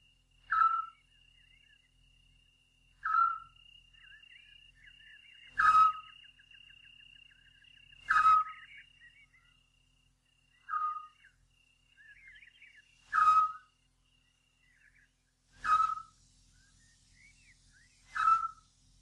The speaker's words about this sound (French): Le petit duc. C'est un hibou. Pas plus grand qu'un merle.